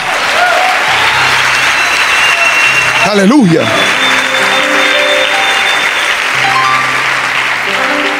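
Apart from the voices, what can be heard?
audience applause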